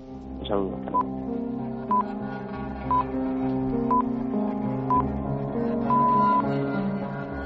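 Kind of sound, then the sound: signal or alarm, radio time signal pips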